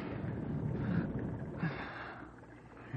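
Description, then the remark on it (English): Loud, rasping snoring, a rough throaty rumble that keeps going for a few seconds and swells in a couple of strong bursts, with no talking. “must be snoring hard.”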